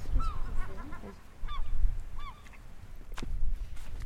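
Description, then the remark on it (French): Seagulls call in a few bursts of harsh, repeated cries over a steady low rumble of wind on the island of Ouessant, France, with no one speaking. “Putain, je prends les sons des mouettes.”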